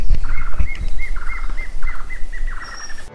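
A plain antvireo sings a steady series of short, bright notes in quick clusters, repeated throughout, with a low rumbling background and a faint high whistle near the end.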